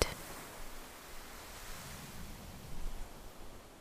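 Soft, steady wash of ocean waves rolling in, a continuous hiss of surf with gentle swells and no voices.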